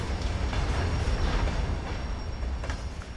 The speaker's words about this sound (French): Là, on se trouve à Odessa, le grand port sur la mer Noire. Et les trains arrivent ici sur le port. Les wagons sont remplis de céréales et ils vont être ensuite euh, transférés sur le terminal portuaire.